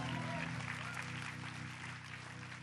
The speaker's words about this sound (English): How about a round of applause for our worship team, as always?